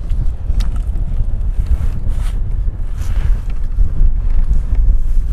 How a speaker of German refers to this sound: Ich will mal kurz irgendwie, dass ich irgendwie was finde, wo man, wo der Wind irgendwie gerade nicht so krass ist